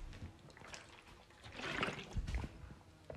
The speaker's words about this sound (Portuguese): deixem-me só dar aqui um, um golzinho de água, que eu nem sequer ainda pequeno almoço tomei, pá.